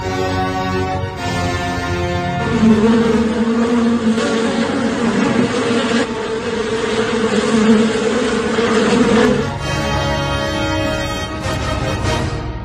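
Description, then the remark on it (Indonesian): A dense, steady droning buzz of a swarm of honey bees, fairly loud, with the hum thickening in the middle before easing back toward the end. “Tiba-tiba ada segerombolan lebah madu datang.”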